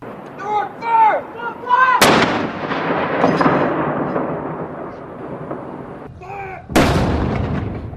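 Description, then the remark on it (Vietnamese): Two loud cannon shots from a gun salute for a royal funeral in England boom several seconds apart, each rolling into a long echoing decay, with a voice speaking briefly before each blast. “Hàng loạt đạn đại bác được bắn đi và chuông nhà thờ rung trên toàn nước Anh để tưởng nhớ hoàng thân.”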